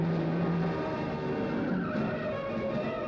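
A small car speeds along a winding, rolling highway, its engine roaring steadily for about three seconds while tires squeal and skid through the turns, loud and continuous with no voices.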